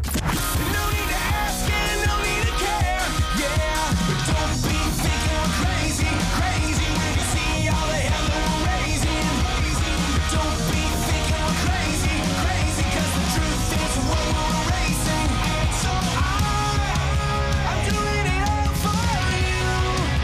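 A loud, dense rock song plays throughout, with driving drums, distorted guitars and a shouted vocal line, keeping a steady, energetic pace without pauses.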